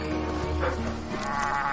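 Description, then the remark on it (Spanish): A flock of sheep bleats in overlapping, wavering calls, several voices layered over a steady low rumble, continuous and fairly loud with no talking, as a boy crosses through the flock and walks away from it; a dog guards the sheep. “El niño cruza el rebaño y se aleja de él.”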